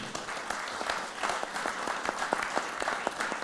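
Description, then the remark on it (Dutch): An audience claps steadily for a speaker being introduced at an evening event, a dense wash of many hands with sharp individual claps popping out, sustained for the whole stretch, with no talking over it. “Mag ik een hartelijk applaus voor hem.”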